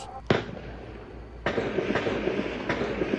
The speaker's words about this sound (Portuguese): Já na Zona Oeste, Ainda era madrugada quando traficantes ameaçaram invadir o Morro da Chacrinha. Houve troca de tiros.